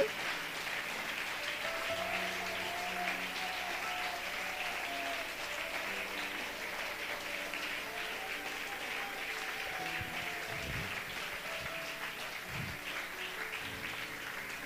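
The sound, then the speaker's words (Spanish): An audience applauds for the Lord during a live Sunday church service, a steady, dense, even wash of clapping for the full stretch, with a faint tone weaving underneath and a few low thumps near the end. “Oh, hermanos, ese aplauso para el Señor, déselo, déselo, déselo.”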